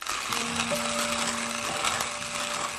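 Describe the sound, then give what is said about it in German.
Steady grinding of a hand-cranked coffee mill, a continuous gritty crunch with faint squeaking tones running through it, no voices. “Ein Klang, der nahezu verloren in der Geschichte ist, ist für mich das knirschende Malen einer Handkaffeemühle.”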